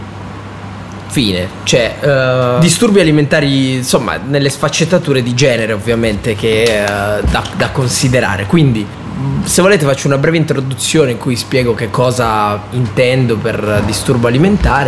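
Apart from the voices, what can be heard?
air conditioner running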